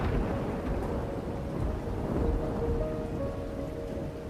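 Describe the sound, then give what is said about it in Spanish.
Heavy rain of a torrential downpour over England pours steadily under a deep, continuous rumble of thunder, a dense wash of sound that stays loud and unbroken throughout, with no voices. “Y como una doble maldición, un diluvio bíblico azotó Inglaterra. Lluvias constantes, inundaciones”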